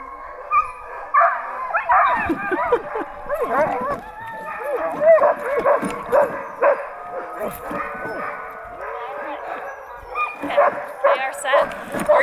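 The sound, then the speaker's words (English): A pack of sled dogs at a dog sledding outing barks and yips excitedly in a continuous overlapping chorus, loud, with eager whimpers mixed in and voices talking faintly underneath. “So this is the audio from the dog sledding episode.”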